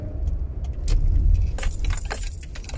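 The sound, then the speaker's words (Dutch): Keys jangle in a few bright, metallic bursts through the second half over a steady low rumble like a car engine or road noise, as the speaker, nearly home, slows down. “Dan gaan we sleutels een beetje geluid maken.”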